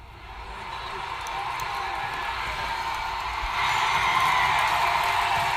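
applause and cheering

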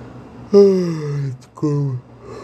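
person yawning

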